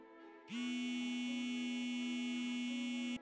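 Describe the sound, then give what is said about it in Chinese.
A mobile phone vibrating: one loud, low, steady buzzing hum that starts abruptly, holds unbroken for under three seconds, then cuts off. No one speaks. “突然，手机一声震动声响”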